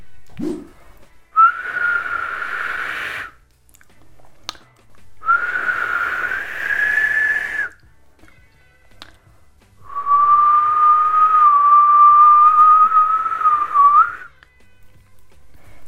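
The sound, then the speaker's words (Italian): A person whistles three sustained, wavering phrases, each a few seconds long with short pauses between, fairly loud, with no talking. “Fischiare, che è certamente uno dei suoni che si fanno con la bocca più popolari, soprattutto quando si è dei bambini, che significa emettere un suono soffiando tra i denti o tra le labbra.”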